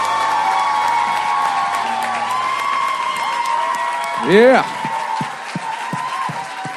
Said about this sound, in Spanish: ¿por qué no recibimos con un fuerte aplauso, así como sabemos hacerlo aquí en Doral City Church?